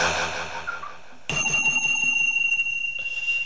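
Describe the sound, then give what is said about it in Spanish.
A Tibetan metal bell is struck once partway through and rings on with bright, sustained high tones that shimmer steadily to the end, following a brief stretch of muffled rustling. “Con este sonido de metales tibetanos les queremos agradecer por habernos escuchado y darles la inmunizada oficial auditiva.”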